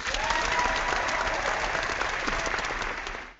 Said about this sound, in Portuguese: Aplausos da galera do auditório.